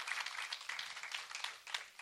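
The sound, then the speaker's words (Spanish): A crowd applauds the pastor steadily for about two seconds, a dense, crackling wash of many hands clapping at once with a slight dip near the end before picking up again. No one speaks. “Vamos a dar un aplauso a la pastora, ¿ven?”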